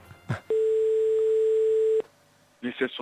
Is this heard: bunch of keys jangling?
no